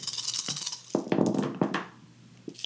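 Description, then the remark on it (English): A handful of ten dice clatter and tumble across a hard surface in a few quick bursts of clicks and knocks, fairly quiet, then settle with a last faint tap. “So I need you to roll 10 dice for me.”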